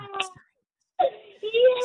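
A young child cries in short, whimpering bursts, then breaks into a longer high wail after a brief silence, fairly loud.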